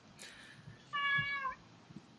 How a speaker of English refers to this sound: So, yeah, this is my new foster cat, Frida.